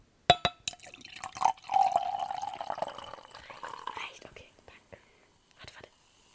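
A couple of sharp glassy clinks, then a steady stream of liquor pours into a glass for about two seconds, its tone rising slightly as it fills, followed by a few soft taps.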